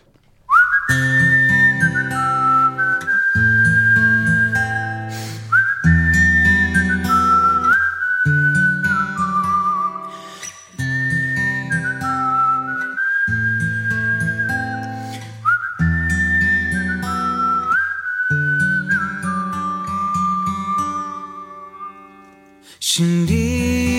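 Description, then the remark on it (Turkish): An acoustic version of a Turkish pop song plays loud, a whistled melody riding over steady, rhythmic chords from guitar and bass, repeating its phrase several times without any singing. “… dinleyeceğiz. Akustik versiyonu yine.”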